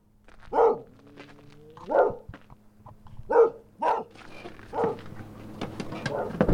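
A dog barks about five or six times in single, irregularly spaced woofs, loud, over a low steady hum in the background, at the Ytri-Ásar farm in Skaftártunga, Iceland.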